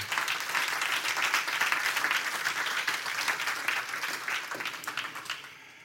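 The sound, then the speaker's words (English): A crowd at a sermon bursts into sustained applause as a hand clap for God, many hands clapping densely and steadily for several seconds before tapering off near the end. “Let's give him a hand clap here today.”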